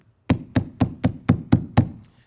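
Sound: knocking on a door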